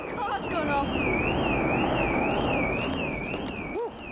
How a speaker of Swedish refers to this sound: Ljudet från motorerna är så höga att bilarnas larm på gatan nedanför går igång.